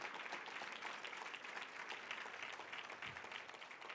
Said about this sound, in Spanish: Vamos, dale fuerte el aplauso al Señor.